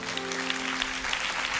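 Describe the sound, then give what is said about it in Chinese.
Steady applause from a church audience, a dense wash of many hands clapping at a constant moderate level, with a faint sustained tone running underneath for part of it. “哎，给他们一个的掌声，可以吗？”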